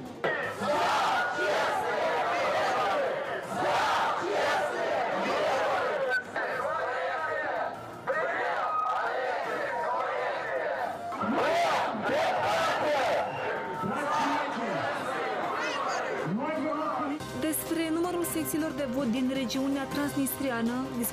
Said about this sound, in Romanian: comuniștii și socialiștii au protestat astăzi în fața Curții Supreme de Justiție.